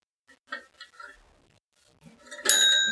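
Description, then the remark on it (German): A small bell rings once near the end, a bright metallic ding that lingers with shimmering overtones, after a few brief murmured voice sounds. “Ja, ich kann die Schnapsliegen nochmal läuten.”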